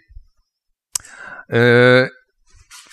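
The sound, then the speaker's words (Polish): A single steady, uniform pure tone, played into one ear, holds loud and even for about half a second, framed by brief clicks and faint breathy noises before and after. “E, to słyszymy taki jednorodny ton, dla jednych bardziej miły, dla innych mniej.”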